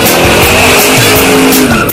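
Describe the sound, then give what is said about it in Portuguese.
A loud racing-car engine roars and whines steadily for about two seconds, mixed with screeching tire squeal, a short jingle built from car sounds for the Band Motores segment with César Bresolim on Band News. No one speaks. “Roda a vinheta dele, Chauri.”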